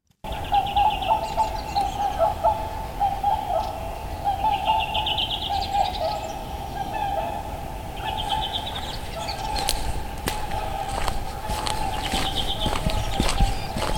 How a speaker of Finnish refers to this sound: mun tarkoitus oli ottaa punakylki silleen huolella talteen, mutta sitten parvi tuli ja lensi siitä yli. Ei siinä mitään, ihan hienolta sekin kuulostaa sitten. Mutta kuunnellaan tämä vajaa minuutin mittainen äänitehoste tästä.